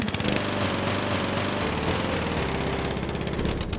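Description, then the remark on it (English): A lawn mower engine runs steadily and loudly, a continuous buzzing drone with a rough, rattling texture and no voices. “I spoke with an acoustic expert who described it to me as sound is when you mow your lawn, noise is when your neighbor mows their lawn, and music is when your neighbor mows your lawn.”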